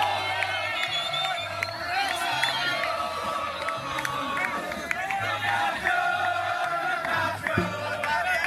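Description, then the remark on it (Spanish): A crowd cheers and shouts as the champions of an Ultimate tournament celebrate, a steady roar of many voices with whoops and chants rising throughout, and a low rhythmic thumping pulsing underneath. “Y ahí están los campeones celebrando, ojo. Escucha, póngale el oído.”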